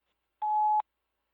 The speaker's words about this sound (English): At the tone, please record your message.